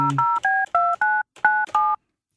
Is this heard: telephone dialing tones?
yes